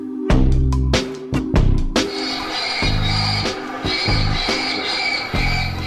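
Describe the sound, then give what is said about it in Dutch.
Recorded crow calls from a bird-scaring deterrent: harsh, raspy caws come in a quick series of loud bursts, then merge into a dense, continuous stretch of squawking calls, sounding mechanical as if played back through a speaker. “Dit is het geluid van een kraai. Geen echte kraai natuurlijk, maar een afschrikmiddel om vogels weg te houden”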